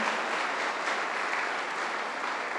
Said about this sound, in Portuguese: Uh, uma salva de palmas para a nova geração, nossos voluntários.